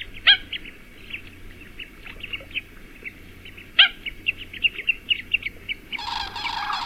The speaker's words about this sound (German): Der Vogel der Woche, der Stelzenläufer.